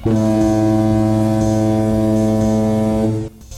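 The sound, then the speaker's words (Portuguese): The steamboat Peri's whistle blows one long, steady, low-pitched blast, loud and rich with harmonics, holding for about three seconds before cutting off abruptly, as its pilot signals to the approaching steamer Curitiba on the Cantagalo straight at kilometre 58. “O piloto dá sinal de apito.”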